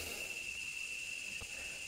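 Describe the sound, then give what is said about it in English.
A cicada buzzes steadily throughout, a continuous high-pitched drone with a thin whining tone over a hissy, shimmering texture, unbroken and fairly faint, with no one talking. “again this cicada is distracting me to begin with, so I, I, really feel for all of you.”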